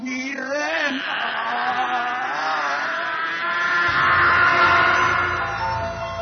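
Instrumental music plays at steady volume: layered, sustained tones with gently wavering pitch, and a low, rumbling bass enters partway through. No voices.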